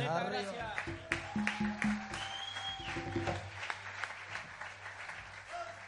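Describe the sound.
An audience breaks into steady, dense applause that carries on for several seconds, with voices and some tonal sounds mixed in underneath the clapping.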